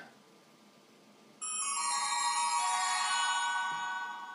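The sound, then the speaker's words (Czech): After a quiet moment, a man rings the doorbell of a house; it rings loudly with a bright, sustained metallic tone that lasts several seconds and fades only slightly at the end. No one speaks. “Ten hodně zvoní.”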